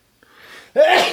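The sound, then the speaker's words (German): A single loud sneeze: a soft breathy intake builds for half a second, then bursts into a sharp, forceful explosive blast. “Gesundheit.”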